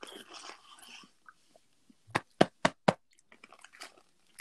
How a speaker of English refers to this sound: I'm sorry, I'm munching on my food right now.